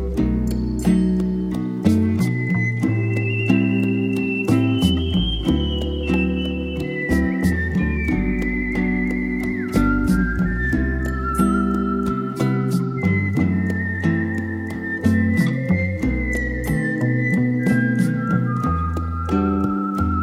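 A clear whistled melody, whistled by the musician, glides in long, sustained notes over a full backing track with steady drums and bass, the whistling sitting prominently on top throughout, with no voices.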